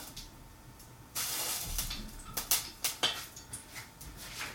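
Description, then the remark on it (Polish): A couple of water drops flicked from the fingers hit heated olive oil to test whether it is hot enough, with a sudden sizzle about a second in, then a steady hiss broken by several sharp crackling pops, with no talking. “Pryskam sobie leciutką kropelką wodę, dosłownie dwiema z palców.”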